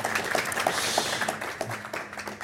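An audience applauds steadily, a dense patter of many hands clapping at once with sharp individual claps poking through, holding at moderate loudness for the whole stretch without any voices.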